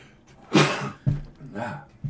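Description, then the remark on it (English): A single loud sneeze bursts out, sharp and breathy, followed by a couple of softer vocal sounds and exhalations. “bless you”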